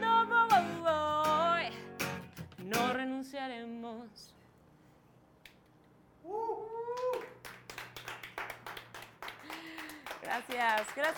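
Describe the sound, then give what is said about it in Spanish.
A series of sharp hand claps, some in quick bursts, mixed with a young child's babbling and sing-song vocal sounds, with a quieter gap in the middle. “por los aplausos, por las palmas.”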